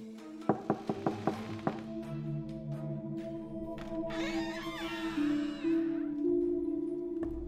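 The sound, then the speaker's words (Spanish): An unlocked door opens: a quick run of sharp knocking clicks, like a handle and latch, then a long, wavering creak as it swings, over a steady droning hum. “Marilyn y Fernando abren una puerta detrás de la cual hay oscuros secretos.”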